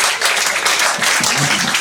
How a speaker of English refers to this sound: Come on, everyone. Come on, let's give a round of applause.